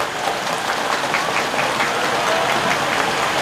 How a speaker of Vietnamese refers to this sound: và để cam kết làm được việc đó thì, thì xin tất cả cùng dân cao tràn vỗ tay thật lớn để cho không khí ở trong giảng đường này nó ấm cúng hơn